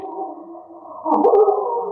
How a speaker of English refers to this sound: Uh, those are dogs, a bloodhounds. Holy oh, cats, look at the size of them.